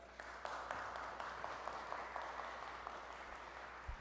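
A steady round of applause from a church audience at Ebenezer Baptist for the organist, many hands clapping in a dense, even wash of sound that holds at a fairly constant level for the whole stretch, with no voices.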